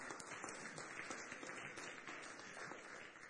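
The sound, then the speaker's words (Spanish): A standing church audience breaks into sustained applause for the Lord, a dense, steady wash of many hands clapping at once with no voices standing out, holding an even level throughout. “Cuando damos un aplauso al Señor en este día?”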